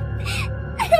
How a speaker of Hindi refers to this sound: अचानक उसे पीछे से बच्ची के रोने की आवाज सुनाई देने लगी